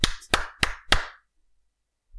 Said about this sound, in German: Gut, dann klatschen wir mal. Eins.